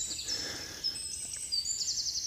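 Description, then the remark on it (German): Outdoor forest ambience with several high, thin bird calls and chirps layered over a soft, steady background hiss; there is no talking. “ach, ich bin gerade wirklich im Wald und es ist äh, Natur und ja, was ihr hier hört, ist wirklich so, ja.”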